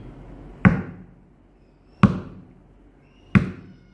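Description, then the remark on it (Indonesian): Three sharp wooden knocks, spaced about a second and a half apart, each a hard tap on the ground with a short ringing decay, loud with no talking: a shepherd tapping his staff on the ground. “Jadi domba itu dengar suara, makanya gembala itu biasanya mengetukkan tongkatnya.”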